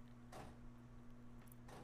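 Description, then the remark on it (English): A cat, Louis, paws and rattles at his bedroom door trying to open it and get out, making a few short, scraping thumps spaced apart, fairly faint over a steady low electrical hum, with no one talking. “He's trying to open his bedroom door and get out.”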